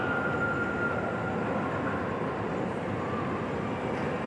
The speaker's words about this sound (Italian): Your scheduled arrival 8.22 M is now arriving on platform 17. Please stand behind the yellow line.